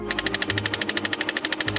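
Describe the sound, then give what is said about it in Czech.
A drilling rig boring a seven-metre borehole used to send nanoparticles underground to clean up contamination, hammering in a fast, steady rhythm of loud metallic pulses with a low mechanical rumble underneath and no voices. “Sedmimetrový vrt a zařízení podobné i injekční stříkačce.”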